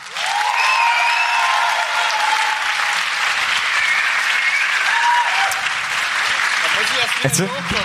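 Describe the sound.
Sustained audience applause, a dense steady wash of clapping at an even loudness for several seconds, with faint whistles and cheers riding on top and a few voices emerging near the end. The audience is applauding a suggestion, 'the perfect start into the new year'.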